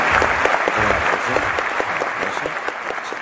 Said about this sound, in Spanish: Yo pongo un aplauso.